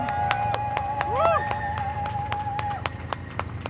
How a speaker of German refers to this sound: Und jetzt bitte ich mal um einen großen Applaus für die Rote Hilfe, die so tolle, tolle Arbeit leisten und unsere Aktivistinnen unterstützen.